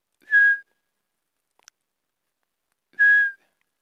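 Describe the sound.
Two short, clear whistled notes, spaced a couple of seconds apart, imitate a pygmy owl's call. The steady, mellow tones are fairly loud, with a faint click between them and no talking.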